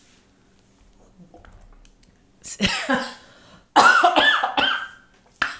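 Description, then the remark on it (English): A few faint, quiet sounds of sipping water, then a loud fit of coughing in several harsh bursts, mixed with laughter, ending with one last short cough. “I don't know why you took a sip of water right there.”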